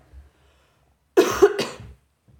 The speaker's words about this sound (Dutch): Oké, ik ga weer even hoesten. Allemaal je oren dicht.